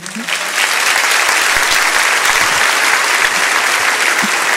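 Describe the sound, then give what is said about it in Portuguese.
Steady, dense applause from a crowd applauding the speaker's mother, a continuous wash of clapping that holds loud and even for several seconds without fading. “Minha mãe, gente, vamos aplaudir a minha mãe.”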